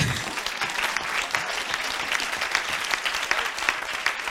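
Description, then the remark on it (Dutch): Sustained applause from an audience, many hands clapping densely and steadily at moderate volume for several seconds, with no voices standing out. “Ja, ik ken de vraag toevallig en dit applaus is precies wat ze niet wil.”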